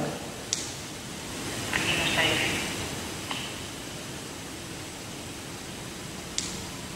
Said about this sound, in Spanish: Hay un sonido como... como un ruido blanco muy lejano que me hacía pensar en agua cayendo contra el tejado.